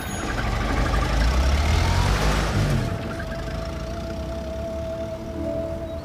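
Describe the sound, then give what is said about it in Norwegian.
Police car engines idle with a deep, continuous rumble, heavier for the first few seconds before easing into a steadier, quieter drone with a faint whine on top. No voices. “Rolf Syversen vet ingenting om politibilene mens han går opp til gartneriet.”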